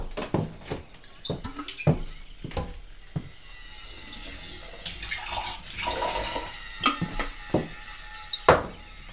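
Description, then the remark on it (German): A Foley recording for a radio play of a water glass being filled: water pours into a glass with a rising gurgle, surrounded by several sharp clinks of glass and dishes set down, with no voices. “dass man da in die Küche gegangen ist, das Wasserglas wird voll gemacht und so.”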